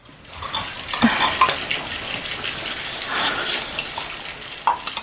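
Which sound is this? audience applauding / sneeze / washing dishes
washing dishes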